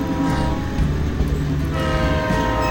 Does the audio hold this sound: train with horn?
yes